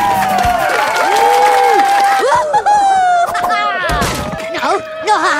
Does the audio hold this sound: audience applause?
yes